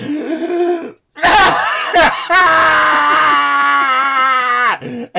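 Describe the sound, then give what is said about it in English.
A man's voice lets out a loud, strained primal scream, held for a few seconds after a burst of rough, throaty growls. It is a deliberate imitation of yelling, made while dousing a bug with bug spray. “I let out this like primal scream and I'd like douse this thing with uh with bug spray”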